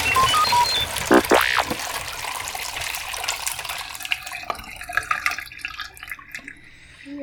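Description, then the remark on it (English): Liquid is poured out steadily through a funnel, a continuous trickling and gurgling with a few clinks and drips, no voices over it. “Alright, I'm using a funnel. This has just been so much easier, by the way.”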